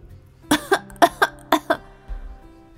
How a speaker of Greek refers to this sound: Μα άρχισαν τότε να το φτύνουν κι άλλοι δυνατά να βήχουν